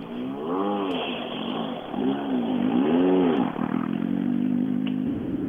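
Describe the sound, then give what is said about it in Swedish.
A rally car engine revs up and down repeatedly, its pitch rising and falling in sweeping arcs before settling into a loud, sustained accelerating drone with some rattling clatter. “Motorn känns riktigt bra så nu kan vi bara öka.”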